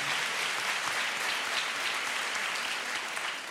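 A crowd applauds steadily for several seconds, a dense, even wash of many hands clapping at once with no pauses and no voices breaking through.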